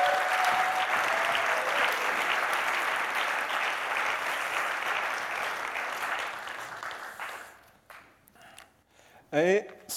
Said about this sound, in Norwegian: Ønsk han hjertelig velkommen med en klapp.